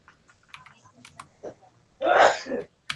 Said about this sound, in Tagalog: Ah, bless you, bless you. Bless you.